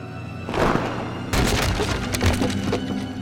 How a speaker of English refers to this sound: The chairs, they're broken. My lovely chairs! They were given to me by the Tsar of Alaska!